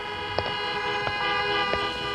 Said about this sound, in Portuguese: Enquanto estavam caminhando em direção ao carro, vocês observam os motoristas inquietos buzinando embaixo do semáforo quebrado pelo mau tempo.